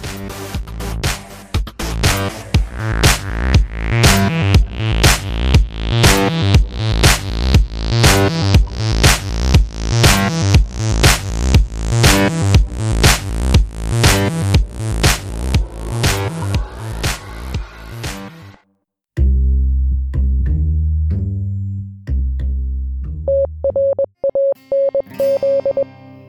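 A loud music track plays with a steady, driving beat and dense distorted instrumentation, then drops into a brief pause before slower sustained chords and a held high note close it out.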